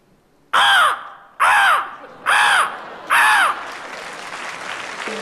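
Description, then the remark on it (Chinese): Four loud, harsh crow-like caws in a steady rhythm, a human voice imitating the call of a magpie, followed by a wash of audience applause and laughter. “啊，乌鸦，啊，那是在你们家叫乌鸦，在我们家这叫声就叫喜鹊，不好听是吧？”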